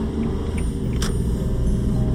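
A steady, low engine drone and rumble from inside a kei van on the Sanriku Coastal Road, constant throughout with no speech, plus one brief higher-pitched tick about midway.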